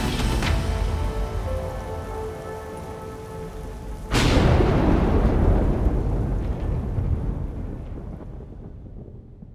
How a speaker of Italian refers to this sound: Fuori imperversa il temporale, il vento stringe i tiranti della tenda portandoli al limite.